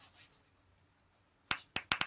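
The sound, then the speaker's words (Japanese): After a stretch of near silence, a short burst of applause comes in: four sharp hand claps in quick, slightly uneven succession, with no talking. “なんか拍手が聞こえる。”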